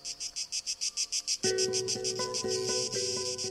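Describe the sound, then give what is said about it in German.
A Cicada orni sings in rapid, regular buzzing pulses, about eight per second, loud, in the Mediterranean region. Partway through, a steady low tonal hum joins underneath while the pulsing continues. “Zikada Orni hat diesen etwas, äh, äh, äh, diesen, dieses Geräusch.”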